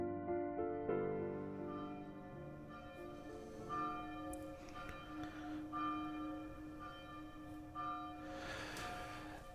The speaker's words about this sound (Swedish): Det vi hör i bakgrunden här är klockan på Sigtuna stiftelsen som slår 12.